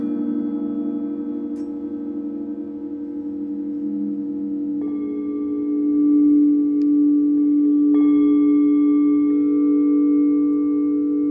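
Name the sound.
tibetan singing bowl ringing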